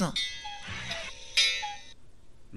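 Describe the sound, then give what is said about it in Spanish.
A phone alarm tone plays a bright, chiming melody in short repeating bursts of ringing high notes, moderately loud, with a brief gap between phrases. “¿Cuál es tu alarma”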